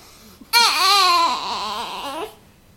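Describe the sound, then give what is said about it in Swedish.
A baby girl lets out one loud, sustained wail lasting nearly two seconds, high-pitched with a wavering, rising-then-falling tone that trails off into a softer, broken whimper. “Hej lilla älskling, nu gör hon poddpremiär.”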